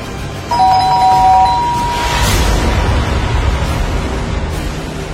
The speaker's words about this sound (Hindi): दरवाजे की घंटी फिर से बजी